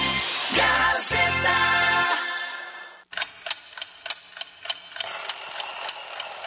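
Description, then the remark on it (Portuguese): A clock ticks in crisp, steady clicks for a couple of seconds, between a dense clattering burst at the start and a high, continuous electronic beeping at the end. “Lembre-se do despertador, do relógio de pulso para não perder a hora e do relógio de parede em sala de aula.”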